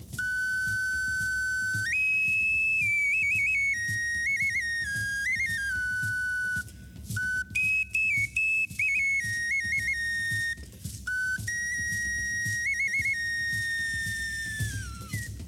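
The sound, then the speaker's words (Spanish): A small four-tone single flute plays a bright, breathy melody, stepping between a few pitches with quick trills and brief pauses, fairly loud over a low background rumble. “Aquí tenemos una flauta individual de cuatro tonos igual.”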